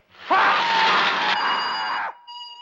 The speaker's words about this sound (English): The technician decontaminating the spacesuits suddenly notices something is amiss, and when he opens the compartment to check on the suits, we see a flash of light and he screams with the crackling sound that implies electrocution.